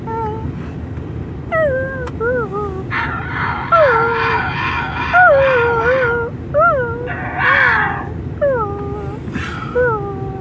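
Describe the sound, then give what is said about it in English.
A person imitates a dog with a string of fairly loud howling and whining cries that rise and fall in pitch, broken up by short breathy bursts between them. “He looked at that dog, and that dog was like.”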